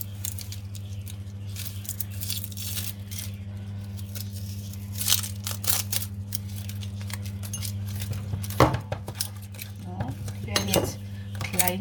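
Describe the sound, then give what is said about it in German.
A knife dices onions into small cubes on a cutting board in a quick, irregular series of taps and scrapes, over a steady low hum of kitchen appliances. No one speaks. “geschnitten.”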